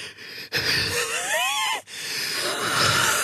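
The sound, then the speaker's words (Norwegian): A voice imitates the labored, wheezing breathing of a COPD patient, with a strained, whistling rising-and-falling tone through a long drawn breath, briefly broken by pauses, no words spoken. “Hvis man som kolspasient skal forklare hvordan det kjennes ut eh, å ha kols, for du puster så dårlig”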